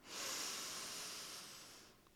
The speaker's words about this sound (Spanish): Ok, estás completamente relajada, completamente centrada. Tomamos otra respiración profunda.